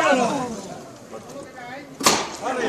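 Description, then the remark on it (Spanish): One sharp, loud knock from a processional float's metal knocker, struck by a band member on calle Pureza, rings out near the end, cutting through people talking and the murmur of a street crowd. “Suena el martillo y suenan los aplausos de toda la calle Pureza.”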